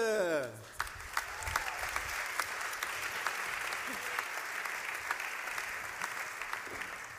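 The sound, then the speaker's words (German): Sustained audience applause welcoming a guest at an evening church service, a dense, steady patter of many hands clapping at even loudness for several seconds, with a few sharper individual claps standing out. “Applaus für Charlotte.”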